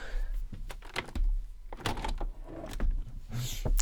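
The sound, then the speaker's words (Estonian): A window being opened, with a series of sharp clicks and knocks followed by rattling and scraping, moderately loud and irregular, with no one talking over it. “ma teen akna lahti.”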